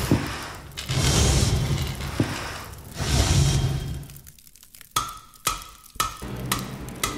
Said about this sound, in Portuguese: Agora sim, estamos todos nesse clima de forja então você está ouvindo aí, agora eu vou subir o som dos foles e dos martelos.